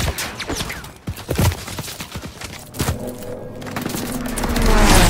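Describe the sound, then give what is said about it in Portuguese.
Shooter video game gunfire: rapid bursts of overlapping shots and sharp cracks, some louder, others softer, with a deep rumbling swell building toward the end. “É jogos de tiro, por exemplo, um Call of Duty.”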